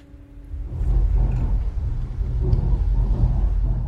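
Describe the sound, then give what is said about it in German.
A deep, steady rumble swells up within the first second and rolls on continuously as trains pass overhead, heard muffled and reverberant from inside a tunnel leading to the art museum exhibition at Rolandseck station in the Rhine heights. “Im Tunnel auf dem Weg zur Ausstellung in den Rheinhöhen kann man noch die Züge über sich rauschen hören.”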